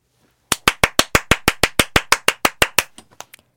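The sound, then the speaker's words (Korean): A short burst of celebratory hand claps for a listener's birthday, about fifteen sharp, evenly spaced claps at a brisk steady rhythm, then a few softer, scattered claps as it trails off. No voices. “축하 박수요.”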